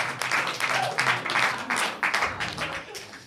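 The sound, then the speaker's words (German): An audience applauds a visiting mayor steadily, many hands clapping in a dense, crackling wash that swells and dips slightly, with a few voices faintly mixed in. “Vollkommen zu Rechter Applaus.”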